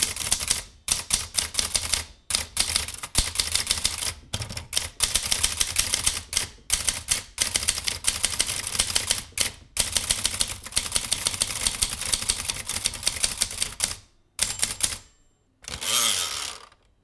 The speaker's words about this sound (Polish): Kilka lat temu zasiadłem do maszyny i zapisałem dźwiękowo chyba wszystkie odgłosy, które da się z niej wydobyć podczas pisania.